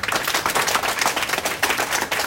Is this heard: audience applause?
yes